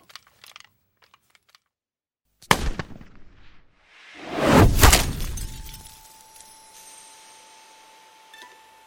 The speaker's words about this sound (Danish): Der lyder et smæld og et klir, da et projektil smadrer en af bilruderne og rammer en gisseltær i hovedet. Projektilet er blevet skudt ind lige der, hvor en af de skudsikre veste i vinduet hænger en lille smule.